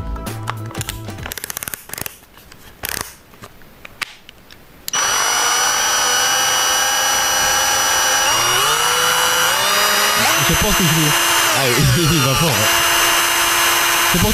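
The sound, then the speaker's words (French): After a few seconds of clattering and rustling, a loud, high-pitched motorized whine from an electric screwdriver spinning very fast starts and runs continuously, shifting slightly in pitch. “Une visseuse électrique qui va très, très, très, très, très, très, très vite.”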